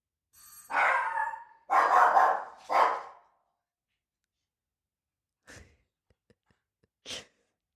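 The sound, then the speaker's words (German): A dog barks three times in quick succession, loud, after a doorbell ring, then after a pause gives two brief, softer huffs. No one speaks. “Und darauf folgt dann wieder eher das kommunikative Bellen.”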